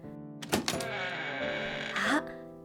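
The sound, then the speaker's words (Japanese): A door swings open: a few quick thuds at the start, then a long, loud, tonal creak that bends upward near the end before stopping abruptly. No one speaks. “ドアが開いた”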